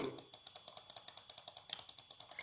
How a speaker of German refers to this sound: Okay, ihr hört uns wahrscheinlich jetzt gerade klicken.